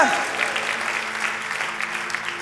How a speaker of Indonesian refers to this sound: Sekali lagi, Oh, tepuk tangannya with passion buat Tuhan kita.